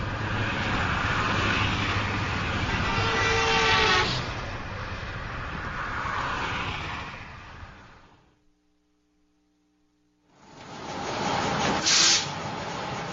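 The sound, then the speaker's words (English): Traffic noise of cars driving by on the streets: a long roaring vehicle pass swells and fades away into near silence, then another loud rushing vehicle approaches and sweeps by. No voices. “the cars.”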